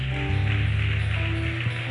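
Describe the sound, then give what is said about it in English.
A church audience at a Victory Night service gives a clap offering to God, clapping steadily and densely, a continuous wash of many hands, with sustained keyboard-like musical tones holding underneath throughout. “If you believe that God can make a way in your life, give a clap offering to God Almighty.”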